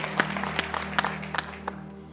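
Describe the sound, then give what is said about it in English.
A church audience claps hands for God in a sparse, uneven burst: a handful of sharp, irregular claps scattered over two seconds, fairly quiet, above a steady low hum with no talking. “Let's just give God another big hand clap.”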